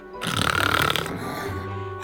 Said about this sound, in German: Und es dauerte nicht allzu lange, bis alle Erdbewohner, selbst der Erdkönig, in der Hexenschule tief und fest schliefen und sogar ein wenig schnarchten.